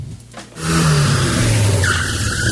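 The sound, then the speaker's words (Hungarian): A car engine roars up loudly, then its tires let out a sharp, sustained squeal as the car fishtails, with the engine still droning underneath. “Most lefarkolunk, de jövő héten megint indexelünk és kanyarodunk, előzünk és tolatunk”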